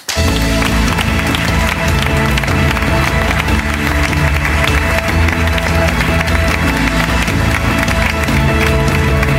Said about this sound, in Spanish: Por favor, un aplauso